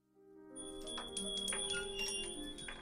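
The door of Asgard opens fairly early in the morning as someone walks in, to a cluster of bright, ringing bell chimes that swell and linger for a few seconds, with no voices.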